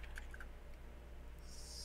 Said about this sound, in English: if you were typing, uh, there you have to mute because we can hear that.